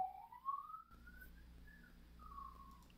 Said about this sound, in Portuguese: Eu acho que passou um carro de polícia ali, meio que atrapalhou o nosso podcast. Passou uma ambulância aqui. Ambulância.